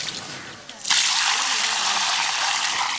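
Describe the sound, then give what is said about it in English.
After a brief quiet moment, urine mixed with water is poured steadily as fertilizer around the base of a plant, a continuous splashing gush that holds at an even volume until the end. “Pouring it around the base of the plant rather than directly onto it means that the nutrients reach the plant's roots.”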